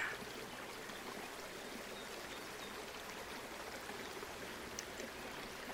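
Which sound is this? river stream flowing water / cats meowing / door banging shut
river stream flowing water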